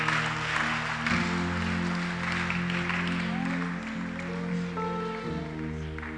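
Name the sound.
audience clapping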